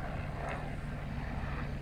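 A helicopter drones overhead with a steady, low rumbling engine and rotor noise that holds at an even level throughout, with no voices.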